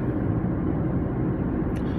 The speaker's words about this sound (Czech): No a já teda navážu na ten úvod, který teda byl jakoby úplně jinýho stylu jako zvenku, ale zase jsem zpátky v autě.